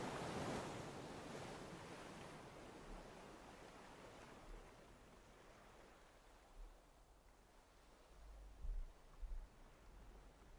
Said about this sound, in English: Upon reaching the fine yellow sandy beach, your feet touch the ground.